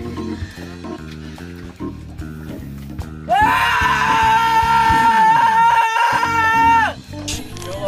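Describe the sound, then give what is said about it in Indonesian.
A loud, sustained scream bursts in over a steady rhythmic music backing, holding one piercing pitch for several seconds before cutting off as the beat carries on. “Pengen teriak, boleh nggak?”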